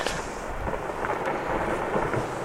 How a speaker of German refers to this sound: Wir befinden uns in der weißen Kordillere der peruanischen Anden. Und so hört es sich an, wenn ein Stück Eis aus dem Gletscher 513 in die darunterliegende Lagune stürzt.